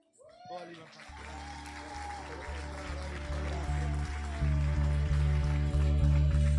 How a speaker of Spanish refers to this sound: Fuertes aplausos si es para el Rey de Reyes y Señor de Señores, aquel que es digno de toda gloria